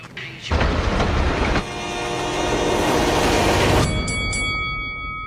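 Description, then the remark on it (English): A train rushes past on railroad tracks with a loud, steady roar and rumble, high metallic squealing tones ringing over it before the noise drops off abruptly near the end. “Every day, people tempt fate and die trespassing on railroad tracks. See tracks, think train.”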